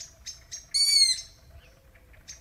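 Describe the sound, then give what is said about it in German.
A hungry long-eared owl, heard at night, gives high, squeaky begging calls: a few short sharp squeaks, then one louder drawn-out screech, and a final squeak, over a faint low rumble with no talking. “Ja, die Waldohreule. Die Waldohreule. Die hungrige Waldohreule.”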